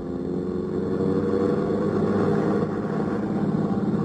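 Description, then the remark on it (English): A car engine rumbles steadily and loudly, a low droning roar with a faint rising whine as the vehicle pulls away and gathers speed, heading off for Angelo's on Stoker Street. No voices. “Ed Porter settled the hat lower on his ears and gripped the wheel harder, and we took off for Angelo's on Stoker Street.”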